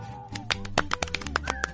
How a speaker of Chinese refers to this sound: 鼓掌。